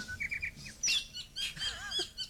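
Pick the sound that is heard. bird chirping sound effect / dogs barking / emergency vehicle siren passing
bird chirping sound effect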